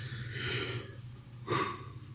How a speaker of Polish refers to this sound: ziewam, jak mówię o Fabiańskim